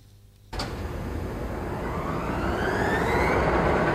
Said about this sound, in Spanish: Pero bueno, realmente a nosotros lo que más nos preocupa es lo de las vibraciones en el despegue. Así que hoy nos hemos traído la batidora de casa para hacer el test definitivo.